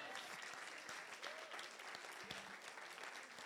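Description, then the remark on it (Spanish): A crowd claps loudly and steadily for Jesus, a dense wash of many hands that stays strong for the whole few seconds, with a faint voice briefly audible underneath. “¿Cuántos le dan un aplauso fuerte a Jesús?”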